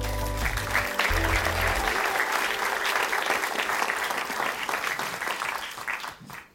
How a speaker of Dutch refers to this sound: Geef haar een hartelijk applaus. Mariette Hamer.